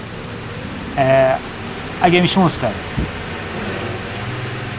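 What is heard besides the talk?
rain falling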